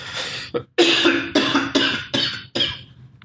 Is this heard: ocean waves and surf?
no